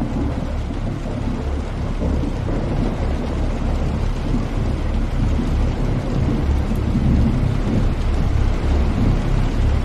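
Heavy rain beats down on soaked asphalt during an evening thunderstorm with lightning, with a deep, continuous rumble of thunder rolling underneath. The sound is loud and dense, with no voices.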